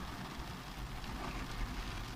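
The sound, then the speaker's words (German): Steady rain falls as a soft, continuous hiss with a low rumble underneath, fairly quiet and unbroken, with no voices over it. “Und jetzt regnet es. Hört man, ne?”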